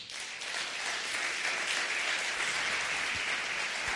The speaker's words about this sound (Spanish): Vale, así que quería un aplauso para ellos también.